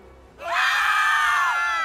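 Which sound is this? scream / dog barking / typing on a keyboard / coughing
scream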